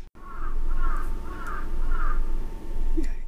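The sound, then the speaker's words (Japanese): A crow caws outside as the weather turns cold, in a series of about four harsh, evenly spaced calls, with steady low background noise and no talking. “今日もカラスさんが忙しいのかな寒くなって大変だよね。”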